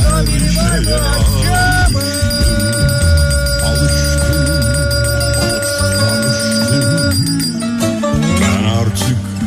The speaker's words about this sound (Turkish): Efendim duydunuz zilin sesini